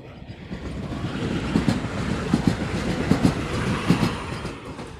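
A train rolls past on the rails, its steady low rumble punctuated by rhythmic clickety-clack beats from the wheels crossing track joints, fairly loud throughout, with no one talking.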